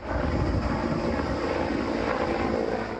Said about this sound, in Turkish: Ekiplerin mesaisi gece boyunca da devam etti. Dört gece görüşlü helikopter karadan müdahale eden ekiplere destek verdi.